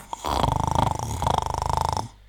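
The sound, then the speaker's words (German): A person fakes a loud, rattling snore, two drawn-out buzzing inhales in quick succession, exaggerated, with no other talking. “Das künstliche Schnarchen wird auch mit jeder Sekunde lustiger.”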